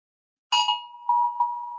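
An electronic alarm sounds abruptly, starting with a bright, chime-like burst and then holding a steady ringing tone that pulses louder twice more, with no talking.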